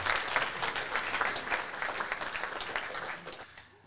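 An audience applauds steadily, a dense wash of many hands clapping at a fairly loud, even level before tapering off sharply near the end.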